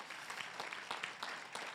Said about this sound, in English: And even though they're not in here, can we give a big round of applause to all those serving right now behind the scenes?